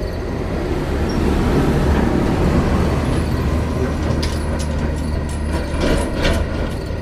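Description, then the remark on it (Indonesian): A car's engine rumbles with a steady low growl of motor and road noise and a few faint clicks and squeaks near the end, no voices. On a dark, deserted road at night near Patuk, the car nearly grazes a woman who is walking and stops beside her. “tiba-tiba ada sebuah mobil yang hampir menyerempet dan berhenti di dekatnya.”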